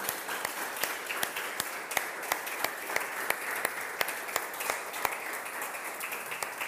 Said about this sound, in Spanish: Puedes darle un aplauso al Señor por lo que ha hecho en tu vida.